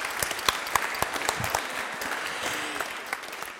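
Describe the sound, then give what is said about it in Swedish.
A studio audience claps steadily at the start of a recording of the show Humorkunskap, a dense wash of many hands with a few sharper individual claps standing out, holding at an even level before easing slightly toward the end. “Nu ger vi dem en varm applåd och så drar vi igång inspelningen av Humorkunskap.”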